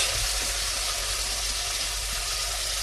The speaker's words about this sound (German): die Paprika schön brutscheln. Die dürft ihr immer wieder mal ein bisschen umrühren und anbraten. Und gucken, dass sie halt nicht von einer Seite schwarz werden.